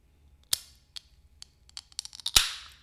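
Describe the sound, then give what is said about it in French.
A can of 8.6 being cracked open: a few light metallic clicks, then a sharp pop followed by a brief fizzing hiss that fades away. No one speaks. “Donc jusque-là, on ne sait pas le différencier avec un bruit de 8-6.”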